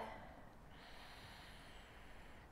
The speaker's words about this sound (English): Nice deep breath. I'm closing one nostril while I'm breathing in the other one.